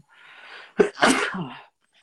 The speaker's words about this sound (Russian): Поэтому сейчас я чихну